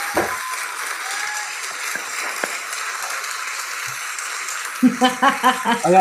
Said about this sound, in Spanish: Sí, Un aplauso.